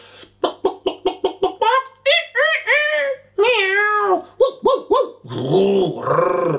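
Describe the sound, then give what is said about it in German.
A person vocally imitating animals: a quick run of short yelps, then drawn-out, wavering meow-like cries and whiny squeals, loud with no other sounds around. “Und, und, wenn ich wenn ich beobachte im Kindergarten oder im Hort, wie die Kids da so spielen, so, das macht man immer oder Tiergeräusche.”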